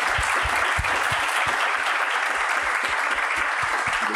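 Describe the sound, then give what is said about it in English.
A sustained round of audience applause for the panelists at the close of a panel discussion, dense and steady with many overlapping claps at an even loudness, continuing for the whole stretch with no voices heard. “And let's give a round of applause to our panelists one more time.”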